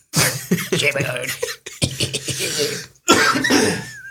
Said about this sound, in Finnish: Vielä kerran pahoittelut, tää saattaa aina näitä köhäyksiä sun muita kuulua.